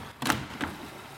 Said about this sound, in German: Ein Experiment. Jetzt machen wir das Fenster auf.